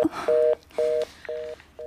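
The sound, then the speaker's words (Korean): A phone's disconnect tone after a call ends: four short, evenly spaced electronic beeps in a steady on-off rhythm, clear and fairly loud, with nothing else around them. “저는 그렇게 끊긴 전화기를 멍하게 들고 있을 때가 점점 늘어났습니다.”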